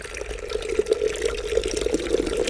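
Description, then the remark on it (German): Strong Georgian tea pours in a steady, continuous stream, a bright liquid splashing and gurgling with small bubbly pulses throughout, moderately loud and heard on its own without any talking. “Herr Bundespräsident, Sie trinken Tee? Ja, ich bin eigentlich eher der Kaffeetyp. Nein, nein, nein, Sie müssen probieren.”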